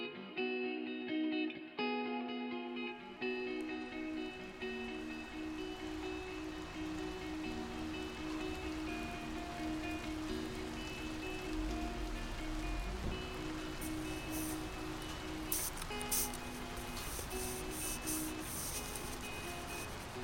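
Heavy, steady rain hisses continuously outside an open window, a dense even wash of drops with a low sustained hum beneath and a few sharper spattering bursts near the end. No one speaks.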